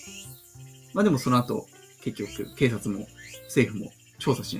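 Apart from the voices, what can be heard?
cicadas buzzing loudly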